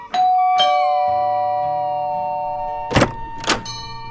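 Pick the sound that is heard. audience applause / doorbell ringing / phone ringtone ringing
doorbell ringing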